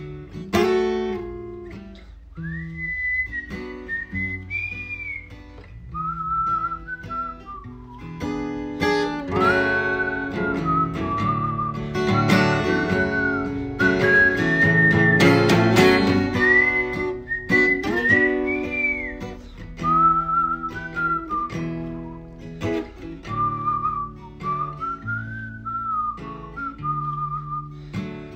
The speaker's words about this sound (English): Sorry, I got bad teeth. I'm working on the whistling.